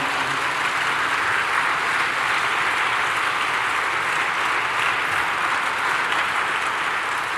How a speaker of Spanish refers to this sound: Alguien dele un aplauso al Señor.